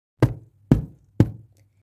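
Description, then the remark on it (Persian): Aunt Petunia knocks three times on a door, the knocks firm and evenly spaced about half a second apart, each a sharp thud with a short resonant ring, followed by silence. “خاله پتونیا دوباره به در ضربه زد و فریاد کشید.”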